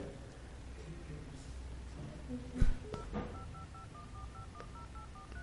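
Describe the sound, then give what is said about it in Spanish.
After a dropped call during a phone interview, the phone is redialed: a quick run of short, evenly spaced keypad beeps follows a brief clunk, with low background hiss and faint murmuring underneath. “Sí, doctora, se cortó nuestra comunicación.”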